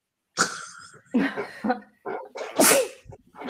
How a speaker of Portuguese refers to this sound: Saúde. Tá na hora Saúde. do meu ataque de espirro. Vocês querem então, vocês não sabem, vocês não, vocês não me conhecem pessoalmente, mas assim, meu espirro nunca vem em dose única. é, é vários. Sempre.